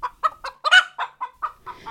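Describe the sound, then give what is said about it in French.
A hen clucks in a steady series of about eight short, nasal calls, fairly loud, with one louder, harsher squawk in the middle and no other sounds. “Pour cette dernière émission sur le thème de l'envol, j'ai eu envie de m'attarder un peu sur un animal particulier car dotée d'ailes mais incapable de voler, la poule.”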